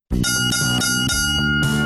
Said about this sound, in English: Ah, uh, there it is, the status sound and radio. Four bells, the fourth and final round. Means we're gonna land this baby,